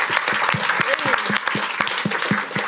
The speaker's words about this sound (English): Round of applause